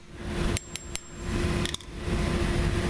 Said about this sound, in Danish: Det her det er en bænkkammer, og det er en, øh, en, træ, øh, en træer, det vil sige, den øh, ligger cirka på 300 gram. Der kan vi jo tage den her, det er en, en bænkkammer med kugle, som ligger på omkring 100 gram.